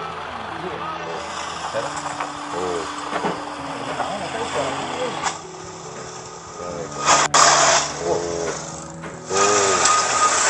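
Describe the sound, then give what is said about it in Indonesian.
A motorcycle engine drones, its pitch stepping up and down as it revs and shifts, growing louder toward the end, while people talk briefly over the noise. “Teh baturan urang pakai motor.”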